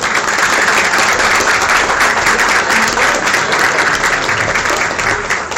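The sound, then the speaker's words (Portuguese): Steady, dense applause from an audience at a presentation of the representatives of the SPFL Série C clubs, many hands clapping at once in a continuous loud wash of sound that holds evenly for several seconds without voices standing out. “Aplausos, por favor.”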